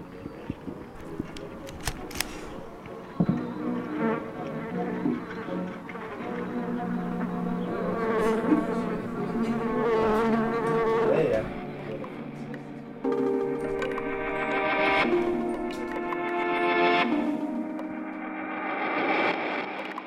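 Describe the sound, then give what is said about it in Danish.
Flies buzzing loudly and continuously, several droning tones layered and shifting in pitch for about twenty seconds, with a slightly processed, distorted edge and no talking. “Hvorfor skabe et lydværk til fluer eller spille 10 minutter på en hjemmebygget violin?”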